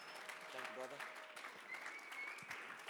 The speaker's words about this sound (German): Komm, lass uns ihm mal einen Applaus geben und ihn herzlich willkommen heißen.